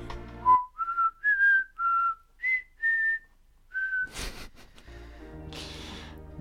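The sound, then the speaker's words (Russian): A flute plays a short, halting melody of about seven sustained high notes, each separated by brief pauses, followed by bursts of rustling noise and a steady hiss. “На, на флейту, на, на этой флейте дурацкой.”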